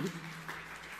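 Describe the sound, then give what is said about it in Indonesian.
An audience gives lively applause for glory, a brief, steady wash of dense clapping, fairly soft overall, with a low sustained tone underneath at the start. “Tepuk yang meriah untuk kemuliaan.”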